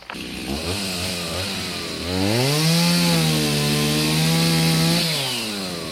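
A chainsaw cuts down a somewhat damaged ash tree, one marked beforehand by the town hall; its engine drones steadily before revving into a louder, higher whine under load, then easing back down near the end. No voices.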